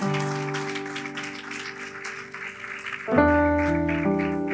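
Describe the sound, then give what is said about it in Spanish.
An audience at a church service claps steadily, a warm crowd applause layered over sustained keyboard chords that shift to a new, fuller chord partway through. “Denle un aplauso a Xiomara y su esposo.”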